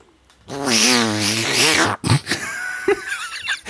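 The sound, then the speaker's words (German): A person imitates an attacking cat: a loud, wavering, strained yowl lasting over a second, followed by a few short, breathy, hissing bursts. “Das ist eine sehr lustige Katze, die angreift.”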